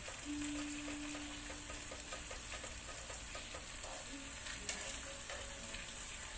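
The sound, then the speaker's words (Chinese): King oyster mushrooms frying in a pan next to frying chicken cutlets: a steady, dense sizzle and crackle running throughout, with one sharp click near the end and a faint low hum underneath. No one speaks. “就是煎鸡排的旁边，我们就来煎杏鲍菇。”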